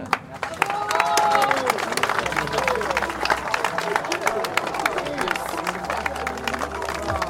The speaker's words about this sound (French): vous pouvez les applaudir encore une fois